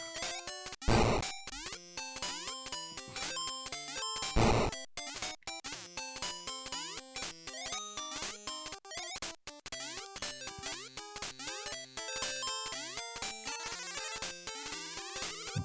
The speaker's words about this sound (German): Also ich bin mir ziemlich sicher, dass es ein Super Mario ist, aber nicht das erste. Es ist das erste. Super Mario Land. Dann ist es Super Mario Land 2? Nee, Super Mario Land. Wirklich das erste.